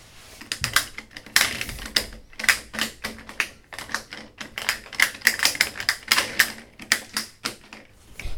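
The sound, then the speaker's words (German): Marbles clicking and clacking against each other in quick, irregular bursts, sharp, with short pauses between volleys and no voices, as two figures play marbles on the first floor of a house. “Die Geräusche kamen aus dem ersten Stock, und zwar war, waren dort zwei Gestalten, eine schwarz und eine ganz weiß, und diese spielten gerade mit Knicks.”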